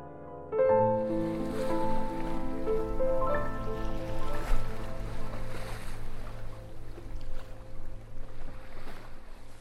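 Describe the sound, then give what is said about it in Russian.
Sea waves lap and wash steadily under a sustained, humming musical drone, starting abruptly after a brief pause and continuing at an even level with no speech. “В этот миг стало ясно – это Ливадия, ее неповторимый образ – и как спасение от жары возникла мысль о море. Ну где же это чудное, спасительное море, которое может противостоять любому пеклу?”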